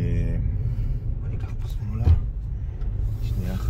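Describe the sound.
Steady low rumble of car traffic moving past at eight in the morning, by an area where a lake and an amusement park are being built, engines droning with a brief louder surge midway, while a person talks over the road noise.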